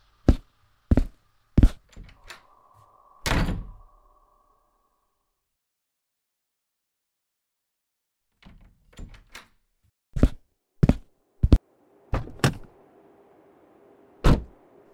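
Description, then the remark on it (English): A metal garage door rattles and bangs in strong winds, in irregular bursts of sharp, loud clanks, with a ringing metallic hum after some hits and a long quiet gap midway. “The metal garage door separating me and the outside world rattles from the strong winds.”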